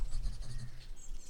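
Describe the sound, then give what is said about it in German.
A pen scratches steadily across the pages of a notebook diary in short, continuous strokes, fairly quiet, with a soft low rumble underneath and no voices. “Sie ist sicher schon im Garten ein Aperöl am Trinken und schreibt ihr das lustige Notiztagebüchli”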